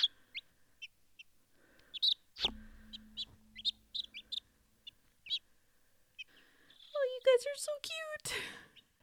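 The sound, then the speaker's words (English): Baby chicks peep over and over, with a scatter of short, high-pitched chirps. A burst of louder, overlapping cheeps comes near the end, and nobody speaks. “That was the sound of some of my cute little baby chickens.”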